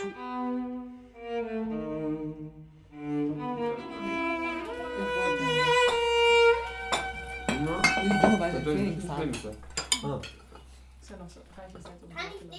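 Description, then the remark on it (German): Pots and cutlery clink and clatter in a busy run of sharp metallic knocks and rings as someone cooks for family and friends, following a few seconds of soft, voice-like tonal murmuring at the start. “kocht für seine Familie, Freundinnen und Freunde, falls sein Terminplan es zulässt.”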